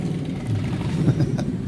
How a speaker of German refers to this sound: ich habe hier noch ein Motorrad, warte, das spiele ich auch nochmal ein. Hört mal euch das mal an hier.